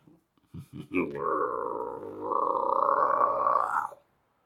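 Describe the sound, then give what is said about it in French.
A voice imitates hunting dogs growling: a few short guttural grunts, then one long, rumbling growl held for about three seconds, fairly loud, ending abruptly. “Des grondements l'alertèrent dans son dos.”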